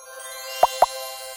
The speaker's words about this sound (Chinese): 是鸭子的红色小脚扬起水花。啪叽，啪叽，啪叽